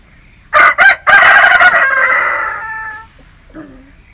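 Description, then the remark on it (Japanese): A rooster crows loudly, one full cock-a-doodle-doo with two short opening notes and a long drawn-out tail, followed by a faint low cluck. “メスは全く鳴かないんですっけうんこういう鳴き方はせんわな。”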